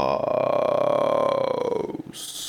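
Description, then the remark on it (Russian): A single low, gravelly strohbass vocal fry drone, done as a voice exercise, held for about two seconds, close to the microphone and fairly loud, with a rough, rattling pulse before it breaks off into a short hiss. “Чем громче штрабас, тем у вас расслабленнее связки.”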